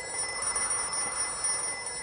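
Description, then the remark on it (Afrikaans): A telephone rings with a steady, unbroken high-pitched tone lasting about two seconds, fairly loud, with no voices over it. “As hy nou weer ly, dan gee jy die foon vir my, ek sal antwoord.”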